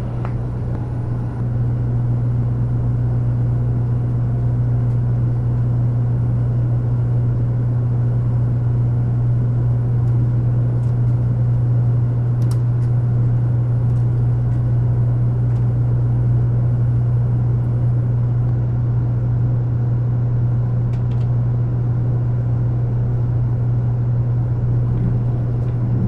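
A steady, loud low-frequency drone with a strong hum aboard a running Type 100 Shinkansen bullet train, service 733A on the Hakata-Minami Line from Hakata to Hakata-Minami, Kyushu, Japan, in 2010, continuing evenly for the whole stretch with faint rattles and no voices.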